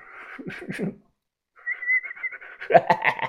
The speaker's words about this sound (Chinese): 他看着我一边吹着口哨一边笑了。